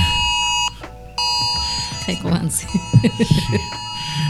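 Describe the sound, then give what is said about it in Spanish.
A curfew siren sounds in the streets on a Sunday as a steady, high electronic tone that drops out briefly, then resumes and holds on while people laugh and talk over it. “Ya empezó el, ya mismo empieza este la sirena por ahí, Y empiezan este bueno, hoy, se supone que nadie estuviera en la calle prácticamente, hoy es domingo,”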